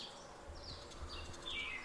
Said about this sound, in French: Et vous continuez à voir cette nature, l'observer, en profiter, entendre le vent, les oiseaux,